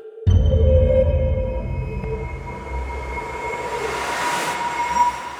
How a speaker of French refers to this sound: Un bruit de dépressurisation accompagne l'atterrissage du vaisseau Ares 2055.